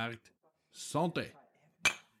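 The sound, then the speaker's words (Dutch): Brief voices and a short burst of cheerful exclamation, followed by a single sharp clink as workers knock stoneware beer jugs together in a toast, ringing briefly before fading. “De belangrijkste medewerkers klinken op hun succes allemaal en het is verdiend.”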